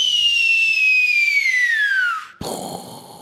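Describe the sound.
A voice imitates a bottle rocket: a long, loud whistle slides steadily downward for about two seconds, then breaks off into a short, noisy burst like a small explosion.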